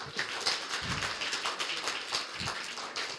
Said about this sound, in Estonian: anname aplausi neile.